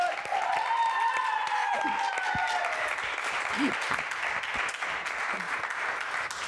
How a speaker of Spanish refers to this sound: Un aplauso, por favor.